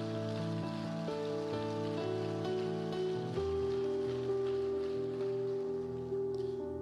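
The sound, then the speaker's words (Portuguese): A church audience applauding at a pastor's urging during a service, a steady, dense patter of clapping that holds for several seconds, with sustained keyboard chords ringing underneath and no talking. “Ah, vai, aplaude, aplaude direito então.”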